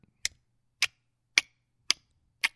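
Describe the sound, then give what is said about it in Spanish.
A voice imitates the steady waiting click of a pedestrian crossing button synchronized with the traffic lights: five sharp, crisp clicks evenly spaced about half a second apart, fairly loud, with silence between them. “Este, cuando esperas, el botón hace un ruido de clic, así constante, y es como clic,”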